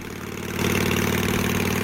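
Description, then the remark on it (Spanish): A small engine idles steadily, a lawnmower-type motor with a fast, even putter that swells louder about halfway through and holds prominent, with no voices. “No es una moto, yo creo. No, esto, es, un cortacésped, ¿no?”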